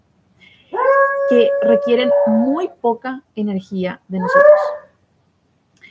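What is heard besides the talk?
dog barking and whimpering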